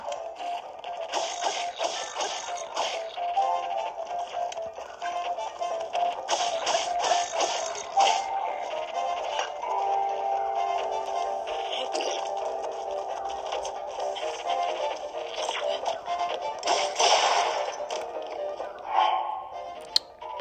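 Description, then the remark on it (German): Busy video game combat sounds: repeated sharp weapon hits and clattering impacts over a steady background, ending with a brief breaking sound as the player's weapon breaks. Moderately loud, with no talking. “Dann ist der auch zerbrochen.”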